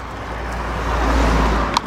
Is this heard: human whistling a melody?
no